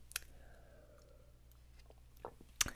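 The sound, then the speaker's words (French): A quiet sip of water: a soft click at the start, a stretch of near silence, then faint wet mouth clicks and a swallow near the end. No one speaks. “Je vais prendre une petite gorgée d'eau.”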